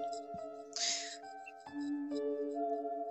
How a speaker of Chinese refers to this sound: 这是谁的铃铛的声音？ 啊？还有铃铛的声音？ 我靠，这谁呀？讨厌！ 就哗啦哗啦的。